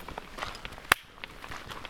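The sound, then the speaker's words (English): One sharp, loud hand clap, made for audio syncing at the start of a recording, cracks out on its own, over almost at once, with only faint soft tapping and shuffling sounds around it and no talking. “Well, I'm gonna do uh, an audio sync clap to start things off.”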